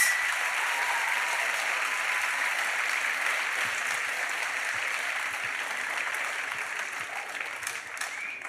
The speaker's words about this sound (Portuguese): Aleluia! Dá um salve de palmas para Jesus.